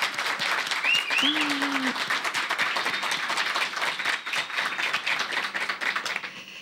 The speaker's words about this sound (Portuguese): Então, assim, eu quero pedir uma salva de palmas para a plateia agora.